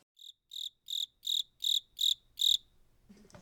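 crickets chirping

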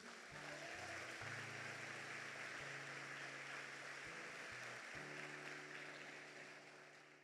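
church audience applauding

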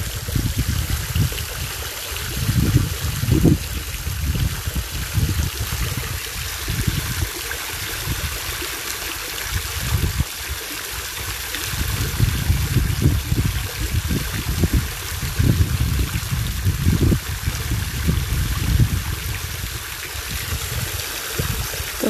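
flowing waterfall water

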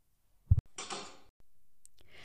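door creaking open

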